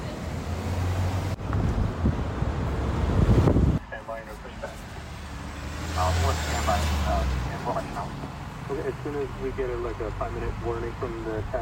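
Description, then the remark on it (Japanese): Busy Los Angeles city street ambience amid tall buildings, with a steady low rumble of passing buses and scooters, wind buffeting the microphone, and indistinct voices of many passersby near a Starbucks drifting through the traffic noise. “大好きですこういう感じバスと人とスクーターとスタバと人がたくさん歩いてますニューヨークっぽい LA でした”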